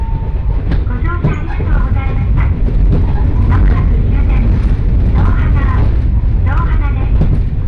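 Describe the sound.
A local train on the Johana Line in Japan, travelling from Yuden to Johana, rolls along the rails with a loud, steady low rumble and faint rattling throughout, while an onboard announcement voice speaks intermittently over the noise.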